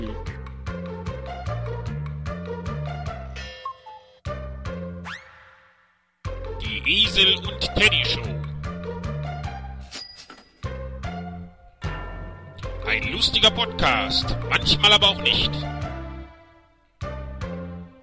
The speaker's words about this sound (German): Hören Sie selbst, was das für eine scheiß Trailermusik ist. Aber zum Glück gleich zu Ende.